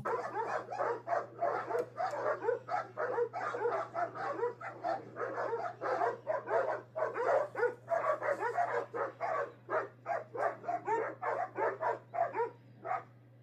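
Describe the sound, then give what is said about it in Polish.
Several dogs bark and yip continuously in a rapid, overlapping chorus, with occasional whimpers, fairly loud over a steady low hum throughout, from a video clip of dogs. “Pamiętacie, jak najpierw puszczę wam mm, tę pierwszą e, wersję, na której pieski sobie mm, szczekają.”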